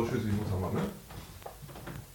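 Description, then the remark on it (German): A man shuts a door loudly with a couple of sharp knocks and thuds while people keep talking over it. “Er schließt die Tür, sehr laut übrigens.”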